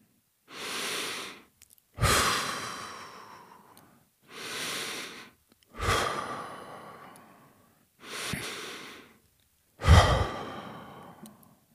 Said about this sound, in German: Also, liebe Hörerinnen, erstmal atmet mal dreimal ganz tief ein und aus.